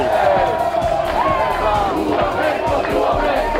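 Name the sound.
protest crowd chanting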